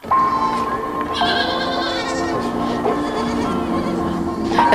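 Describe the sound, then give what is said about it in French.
A herd of goats bleats loudly and continuously on La Baillerie, a cooperative farm where about 90 goats are milked. Many wavering, nasal cries overlap one another with no break across the whole stretch. “on traite à peu près 90 chèvres”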